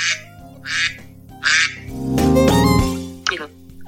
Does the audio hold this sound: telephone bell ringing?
no